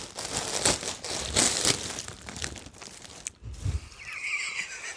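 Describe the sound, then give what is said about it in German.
A plastic Amazon mailer bag is handled and torn open by hand without a knife, with loud crinkling and rustling bursts that build, then a short pause before softer rustling resumes. “Ich kenne mich aus mit Amazon-Tüten. Ja. Ich weiß, wie die gehen guck.”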